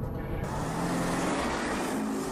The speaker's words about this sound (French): on est en voiture, on parle de business, d'immobilier, d'entrepreneuriat, de management, de mindset. Euh, mets ta ceinture, assis-toi, détends-toi.